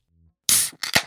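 A beer can cracks open with a sharp snap and a quick hiss of fizz, followed by a second, shorter crack-and-hiss, both close and loud, with no talking.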